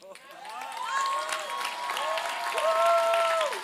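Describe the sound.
A crowd applauds steadily throughout, a dense wash of clapping that swells slightly, with rising and falling voices cheering and calling out above it.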